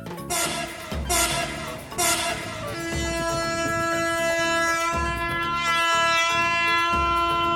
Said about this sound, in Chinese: 那如果你只听到又长又慢又缓的汽笛一声，那是在通知火车正在接近当中哦。